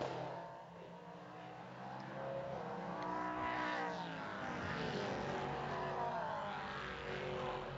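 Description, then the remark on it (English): A prototype race car driven by Matt Bell roars across the line during the IMSA Prototype Challenge season finale at Michelin Raceway Road Atlanta, its high-pitched engine note rising as it approaches and then dropping away in a clear Doppler sweep, loud with no talking. “Matt Bell across the line one more time.”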